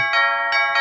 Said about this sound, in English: So hang on. That is the doorbell. I wonder who that could be.